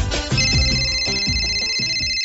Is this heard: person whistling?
no